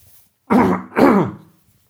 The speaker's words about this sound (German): Jetzt muss ich mal kurz husten, so ich hoffe, jetzt geht's wieder.